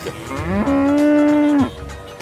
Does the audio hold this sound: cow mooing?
yes